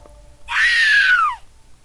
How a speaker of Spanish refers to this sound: Era mi madre, que gritaba que la muñeca la había rasguñado.